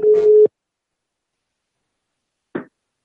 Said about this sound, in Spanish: bueno, se oye el tono, ¿no? Parece que vamos a gastar una broma telefónica. ¿eh? Joder, si funciona, está sonando.